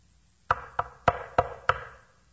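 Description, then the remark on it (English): Five firm knocks on a wooden door in a steady, evenly spaced rhythm, fairly loud, each with a short hollow ring, then quiet. “Soon the wolf knocked on the door.”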